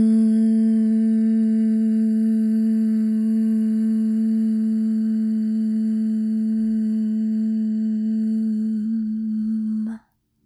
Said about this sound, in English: Hum. Letting your lips part at the end of your hum. And as you hum, feeling that vibration between your lips.